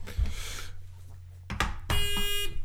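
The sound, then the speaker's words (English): A harsh electronic buzzer blares for about half a second after a sharp clunk, its bright, buzzy tone like a game show buzzer, fairly loud with no one speaking. “That's my buzzer.”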